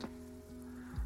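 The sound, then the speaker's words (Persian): Water drips and patters softly against a steady low hum, with a brief bright splash at the start and a thicker thump near the end; no one speaks. “صدای چک آب میاد”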